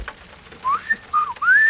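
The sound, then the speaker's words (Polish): A person whistles a short tune of three bright, gliding phrases that rise and slide in pitch, fairly clear over a faint hiss, with no talking. “Nieźle, co? Gwizdek mnie nauczył.”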